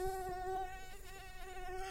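A mosquito whines steadily inside a house with the windows closed, a thin high-pitched buzz with a slight wavering pitch, continuous for the whole moment with no voices.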